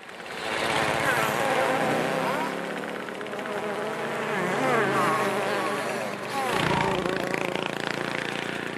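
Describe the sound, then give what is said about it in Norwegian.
Insects buzzing steadily for the whole stretch, a dense droning hum with wavering, swooping pitches as wings pass by, with a brief dip before the buzz swells again. “Dette er insekttrafikk på mikronivå med dyrisk design.”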